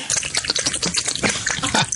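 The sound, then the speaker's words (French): Water splashes and gurgles steadily into a glass for about two seconds, a bright, bubbly trickle with small fluctuating bursts and no voices. “Un verre d'eau, hein?”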